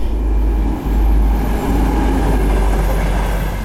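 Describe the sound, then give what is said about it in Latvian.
A train rumbles past beneath the recently repaired overpass that carries the Liepāja highway over the Jaungava–Tukums railway, a loud, steady low roar of rolling wheels and rail noise that holds for several seconds with no voices. “Savukārt pārvads uz Liepājas šosejas pāri Jaungavas tūkuma dzelzceļu ir viens no tiem objektiem, kurā skaidri redzam, Nav gluži tā, ka valsts tiltus būtu atstājusi novārtā.”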